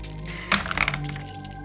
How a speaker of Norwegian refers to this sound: Jo, jeg begynner å fikle med nøklene mine å finne riktig nøkkel. Helvete som du bråker av de nøklene dine,